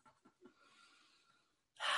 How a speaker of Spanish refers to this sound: Ah, y respirar un poco.